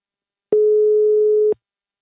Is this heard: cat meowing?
no